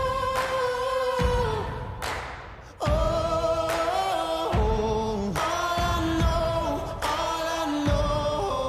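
A steady, loud music track with a simplified beat, where a deep kick drum alternates with a sharp clap-like hit in a simple boom-clap pattern, over sustained tonal chords, with no one talking.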